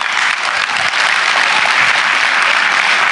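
Loud, sustained applause from a large crowd, a dense wash of many hands clapping at once with no pauses, filling the whole clip.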